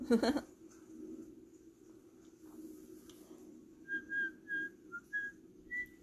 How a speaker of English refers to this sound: I shouldn't whistle. It probably creates a huge audio spike. I mean, that, that was kind of quiet though. Maybe it'll be fine.